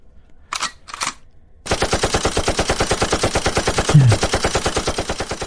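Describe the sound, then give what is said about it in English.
Two separate blasts from hunting shotguns, then a dense, continuous barrage of rapid shotgun fire that keeps going without a break until the end, loud. “It's basically sounds like this in certain areas.”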